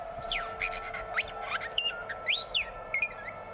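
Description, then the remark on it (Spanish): A parrot mimics robotic electronic beeps and warbling whistles: a rapid, unbroken string of sliding, chirpy electronic tones, clear, with no voices. “Esto es un loro, ¿eh? Esto no es R2.”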